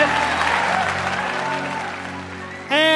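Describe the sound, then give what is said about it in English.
A large audience at a tech product reveal applauds in a dense, steady wash of clapping that tapers slightly, then a loud voice abruptly cuts in right at the end. “I mean, sure, the crowds are livelier.”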